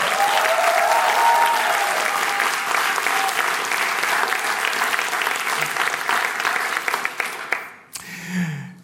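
A crowd claps loudly and steadily for several seconds for Suhe Leppävaara, a dense wash of applause that cuts off abruptly near the end, followed by a brief low murmur.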